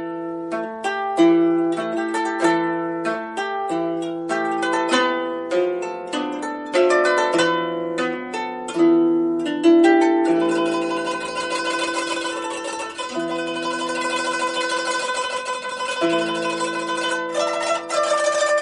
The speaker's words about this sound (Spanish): Mira, mira, un coto. Uy, qué largo. ¿eh? ¿Un tipo de cítara? Sí, sí, efectivamente, de forma rectangular, 13 cuerdas como ves, y que se toca ayudados con un plectro, un tipo de púa, ¿no? Suena así.